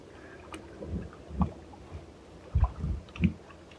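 Gentle water laps against a drifting boat carried by the currents, in soft, irregular splashes, a handful of low sloshes rising and falling over a quiet, faintly breezy background, with no voices.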